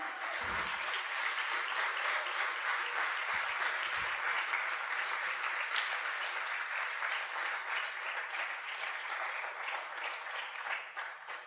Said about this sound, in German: Wir haben so viele Leute hier auf der Bühne, die so viel Arbeit reinstecken und es ist nicht selbstverständlich. Können wir da mal einen Applaus für geben?